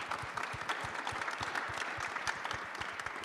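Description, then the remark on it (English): An audience at a panel event applauds a poet, a dense patter of overlapping handclaps at even loudness that fills the whole few seconds. “So, round of applause.”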